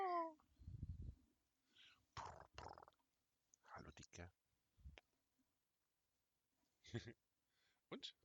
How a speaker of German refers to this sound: Aber er schnurrt. Ja, das hat man tatsächlich auch gehört.